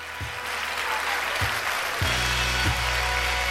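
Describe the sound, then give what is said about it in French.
A crowd applauds a quiz contestant after a correct answer, a dense wash of clapping that swells louder partway through, with a few low thumps underneath and no talking. “Je crois que nous pouvons l'applaudir bien fort.”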